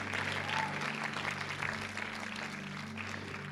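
An audience applauds steadily, a dense wash of many hands clapping at an even level for several seconds, with a low hum running underneath.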